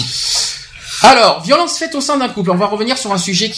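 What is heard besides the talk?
cat scratching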